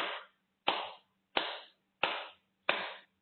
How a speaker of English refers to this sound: This time you're clapping on top of your head 11 times.